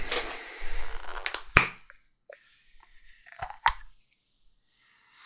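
A screw cap twisted off a drink bottle: a gritty scraping twist, a sharp crack as the seal gives, then faint crackles and another click. No one speaks.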